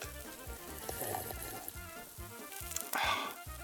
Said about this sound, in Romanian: Până atunci voi prăji eu ce e de prăjit.